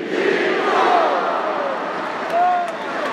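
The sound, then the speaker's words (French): A dense football stadium crowd roars and chants after Chiquinho's goal making it 3-1, a continuous loud wash of voices with rising whistles and shouts cutting through, swelling again near the end. “Et on écoute l'ambiance du stade.”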